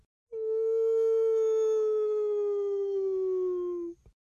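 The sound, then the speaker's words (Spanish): A single long, steady wailing howl of La Llorona, loud, holding one sustained tone for about three and a half seconds while slowly sinking in pitch before cutting off. “A veces la llorona hace un largo aullido.”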